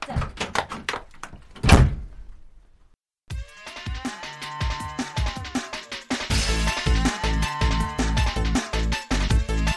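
A door shuts with one solid thud as a wife leaves for work, after some rhythmic knocking sounds, then a moment of silence before music starts playing.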